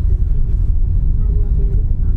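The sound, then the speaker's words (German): A steady, loud low roar of wind and road rumble inside a car driving along a road from the airport, continuous for the whole stretch with no clear words spoken. “Ja, Windgeschwindigkeit.”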